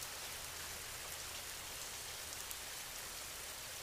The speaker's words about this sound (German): Der wohltuende Regen reinigt auch deine Gedanken. Alles, was dich belastet, wird von dem sanften Regen weggewaschen.